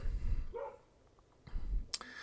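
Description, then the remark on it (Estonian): A dog barks loudly outdoors several times in short, uneven bursts, muffled, with quiet gaps between the barks. “mul koer lõu lõugub täiega õuest praegu, seda peaks vist mikrofoni ka jääma või?”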